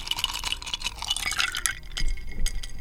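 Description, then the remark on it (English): Ice cubes clink and rattle against the sides of a glass of water, a quick cluster of bright taps with a soft liquid swirl, with no voices. “Now, if I were to lower the temperature, what's in this glass, The 32 degrees Fahrenheit, 0 Celsius, you would get uh, solid H2O.”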